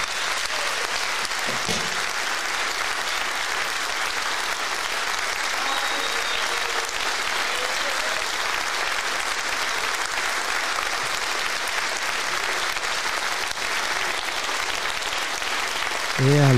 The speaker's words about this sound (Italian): Allora, mentre ascoltiamo, mentre finiamo di ascoltare in sottofondo i, gli applausi di, del teatro Lauro Rossi di Macerata per eh, … e …